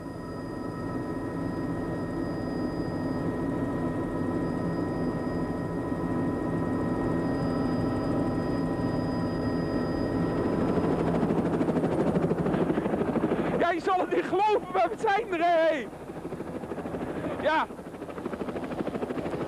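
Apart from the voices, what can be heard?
helicopter rotor noise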